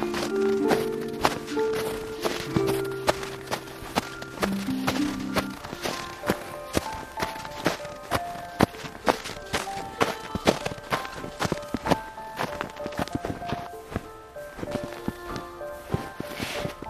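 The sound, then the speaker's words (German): Quick, steady footsteps run through thick snow on a very cold day, crunching in a continuous running rhythm, clear, with soft sustained musical tones playing underneath. “Vielleicht magst du ein bisschen durch den Schnee rennen und damit spielen.”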